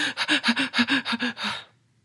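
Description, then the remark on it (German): A voice imitates frantic, panicked panting and hyperventilating: about ten quick, breathy gasps in a steady rapid rhythm, fairly loud, ending abruptly after a second and a half. “Mit vor, den, vor dem Gesicht wedelnden Händen läufst du durchs Haus wie so ein aufgeschrecktes Hühnchen und weinst und keuchst und hyperventilierst”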